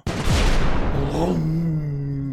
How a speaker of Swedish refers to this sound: Fyra torpeder väser fram eh, i en hastighet på ungefär 40 knop och efter 90 sekunder från avfyrningen här så hör, hör besättningen på Venturer en dånande explosion.